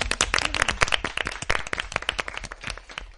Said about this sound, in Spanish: Hoy en el estudio nos acompaña el bonito grupo de seguidoras que ganaron las 10 invitaciones que sorteamos estos días por Instagram para venir como público en directo al programa un aplauso para nuestras invitadas.